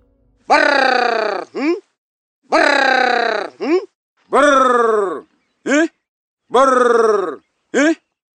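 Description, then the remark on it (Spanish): A honey hunter's voice repeats a call to communicate with honeyguide birds four times: a loud, rolling trill of about a second, each followed by a short rising grunt, with pauses between. “Así es como suenan los recolectores de miel al comunicarse con los pájaros.”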